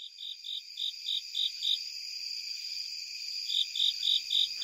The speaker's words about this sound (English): Japanese burrowing cricket in September from under my car in a Maryland state forest.